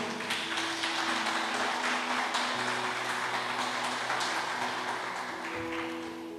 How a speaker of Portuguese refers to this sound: Aplaude Jesus bem forte aí.